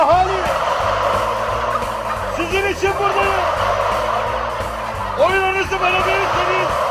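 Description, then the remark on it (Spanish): A large flock of turkeys gobbles loudly and nearly continuously, dozens of overlapping warbling calls swelling in repeated bursts, dense throughout, as a man gives a speech in front of them. “Ajá, y ahora les vamos a presentar la locura de un hombre que siempre quiso ser un líder pero para sentir que tiene miles de seguidores da un discurso frente a la multitud de guajolotes.”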